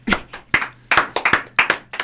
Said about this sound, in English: I don't know what to do now. You're clapping for me. I feel awkward.